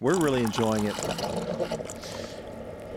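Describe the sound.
A person speaks briefly, then a Keurig coffee maker dispenses coffee in a steady, gurgling stream of liquid pouring into a cup, moderately loud, continuing to the end.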